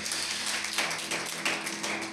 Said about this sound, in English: That was a golf clap. Y'all gonna put your hands together. Can y'all make some noise for Jesus?